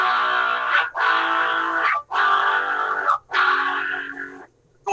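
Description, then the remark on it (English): Distorted electric guitar plays four sustained barre chords in sequence, B, A, G and F sharp. Each chord rings out loudly for about a second before a brief break, with no voices. “But what we discovered was instead of barring, like right now i chose it I'm barring across the thing there,”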